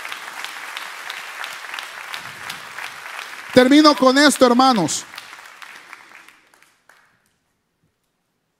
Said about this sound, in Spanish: Gloria a Dios, dile un aplauso al Señor, hermanos.